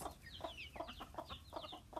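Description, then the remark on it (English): Hens cluck in a steady run of short, repeated bursts while thin, high chick peeps flicker above them, moderately loud, with no talking. “And then you hear the hens going cluck, cluck, cluck, cluck, cluck, and the little peeps of the little chicks.”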